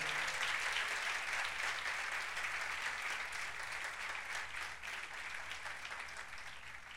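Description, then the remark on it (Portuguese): An audience applauds the Lord for the life of a family, a dense wash of many hands clapping steadily for several seconds, holding fairly constant and easing slightly toward the end. “Você pode aplaudir ao Senhor pela vida desta família.”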